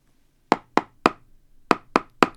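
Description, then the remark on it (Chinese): Mimi the cat knocks on the door of Kaoli's home: six sharp knocks, in two groups of three with a short pause between them, each a crisp woody rap that dies away quickly. There is no talking. “有人敲门，考利只好从衣柜里出来。”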